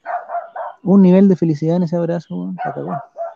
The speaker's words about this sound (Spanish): Es un ladrido, weón son este, Ese es un perro, sí, es un perro.